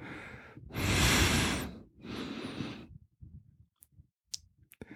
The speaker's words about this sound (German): ich würde gerne deine, deine Nase hören, schnaufen, ganz nah an meinem Ohr.